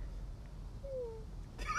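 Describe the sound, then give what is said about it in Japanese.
A person softly imitates a cat's meow while opening a door slightly: one short, thin, slightly falling mew in the middle of an otherwise quiet stretch, followed by a brief rustle at the end. “ドアちょっと開けてニャーとか言って なんかいいなで無視されるんだけど大体”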